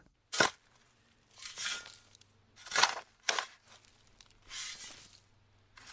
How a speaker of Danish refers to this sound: Kunne du høre, hvad det her var? Det er faktisk lyden af yoghurt, eller A38